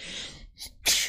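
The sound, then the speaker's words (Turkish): A single sneeze: a breathy inhale builds up, a brief pause, then a sharp, loud explosive burst. No one speaks. “Pardon hapşıracağım gibi geliyor da.”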